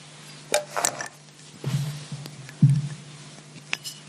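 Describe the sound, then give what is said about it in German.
A bottle being opened: a few sharp glassy clinks and scraping knocks come in short bursts over a low steady hum, with no voices. “ja dann musst du mit der Flasche aufmachen hier.”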